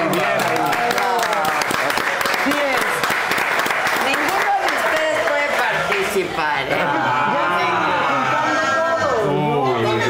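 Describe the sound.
An audience applauds steadily and loudly for about ten seconds, a dense wash of clapping with voices calling out and chatter mixed in throughout.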